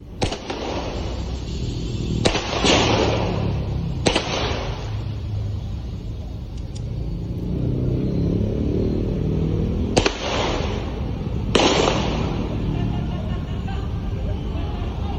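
Five sharp gunshots ring out at irregular intervals, loud cracks with brief ringing tails, over a steady background of crowd murmur and rumbling noise, as police officers try to subdue an armed female attacker at the Indonesian National Police headquarters (Mabes Polri) in Jakarta.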